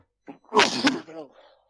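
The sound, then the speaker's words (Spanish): A single loud sneeze: a quick sharp intake of breath, then an explosive burst that trails off into a brief voiced exhale. “Salud.”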